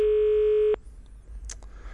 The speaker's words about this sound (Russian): Вот, пошел звонок, давайте ждем, э, что нам ответит.